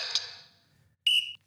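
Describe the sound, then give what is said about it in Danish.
Electronic start beeps from a reaction training app signalling the start of a 30-second round: a bright tone fading out, a pause, then a second louder, steady high beep lasting about a third of a second, clear. “og så skal man måske gøre det på 30 sekunder, og så, så tæller den, hvor mange man når at slukke på 30 sekunder, men det lyder sådan her, når den starter.”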